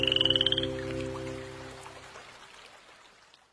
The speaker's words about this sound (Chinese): 青蛙的诗写成了， 呱呱，呱呱，呱呱呱，呱呱，呱呱，呱呱呱。